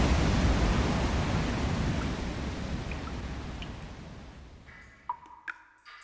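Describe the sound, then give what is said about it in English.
A waterfall's steady, rushing roar starts loud and full, then slowly fades away, with a couple of brief high-pitched pings near the end. “That's me standing at the top of a waterfall. At least you can hear that.”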